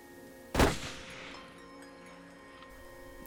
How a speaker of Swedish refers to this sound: Nu ska jag ge dig, tänkte han och så gick skottet av.